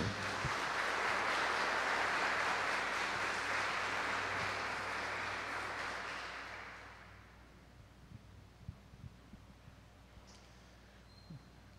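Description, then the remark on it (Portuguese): An audience in the Basílica Velha applauds the Gospel reading in a dense, steady wash of clapping for about six seconds, then the applause fades out into quiet with a few scattered small knocks and rustles. “Vamos no amor aplaudir a bonita palavra que Jesus falou.”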